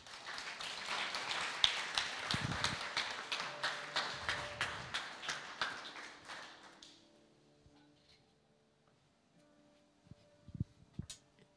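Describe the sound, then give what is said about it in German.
An audience at a church service applauds for God, many hands clapping in a dense, steady patter for about seven seconds before it quickly dies away, leaving near silence with a few faint thumps. “Lass uns einen Applaus geben für Gott.”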